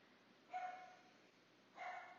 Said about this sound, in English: Well, I don't know why Yoda won't stop barking.